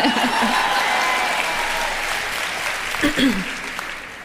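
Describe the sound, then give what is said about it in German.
Audience applause in Düsseldorf fills the air as a dense, steady wash of clapping that gradually thins and fades out, with a voice breaking in briefly near the end. “Gut, da hört der Applaus schon wieder auf.”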